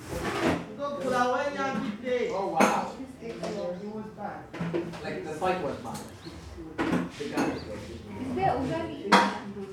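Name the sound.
plates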